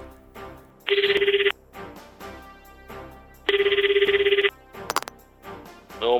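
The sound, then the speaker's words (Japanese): Two long bursts of an electronic phone ringback tone, steady and bright, separated by a pause, heard as if through a handset line with soft background music underneath, as a late-night radio news show calls an earlier caller back. “あ、そうだ、えさっきのタバコの人にもう一度電話をかけて、その後どうなったか聞いてみましょう。”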